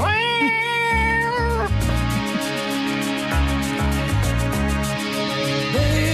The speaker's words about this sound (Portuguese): Estão é um gato. É.